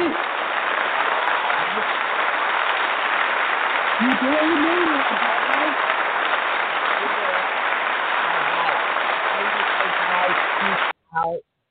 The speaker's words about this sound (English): But I want to say mm-hmm. thank you so, so much and we actually pulled this off. So, yay! Let's applaud.